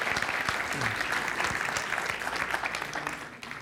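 An audience claps steadily, a dense wash of many hands sustained for a few seconds before tapering slightly at the end, with faint voices mixed in.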